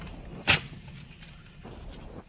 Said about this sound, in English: And a while later, a door opens